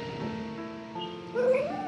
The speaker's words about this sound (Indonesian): Dan kalau malam-malam lo dengar suara gonggongan anjing, artinya ada sesuatu yang berkunjung dalam tanda kutip ya.